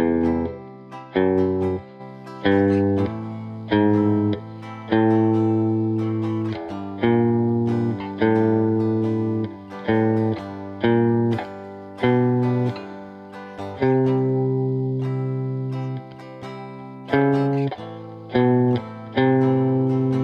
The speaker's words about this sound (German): So, wir machen jetzt wieder das gleiche wie vorhin. Du spielst die Akkordfolge ab und versuchst auf der sechsten Seite den Grundton zu finden. Das Zuhause. Ich mach's mal vor.